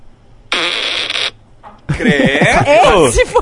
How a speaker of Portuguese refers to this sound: E aí teve o meu, o meu de sexta-feira, que ah, foi tá, tá, um, tá peido aqui, curto meu. de 3 segundos.